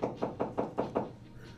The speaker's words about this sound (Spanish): Es que están martillando aquí a esta hora.